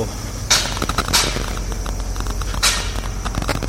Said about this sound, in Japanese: えー、発利用のコンプレッサー回ってるトラックとか、止まってる横、今、このコンプレッサーの真横を歩いてますけども、やっえー、まだ耐震工事の釣りをやってるのでそのできるだけ近いところをわざわざ歩いてますえー、っと